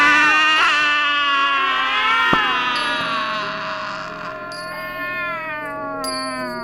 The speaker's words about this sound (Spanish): y el gato gris que vivía con él maullaba al unísono.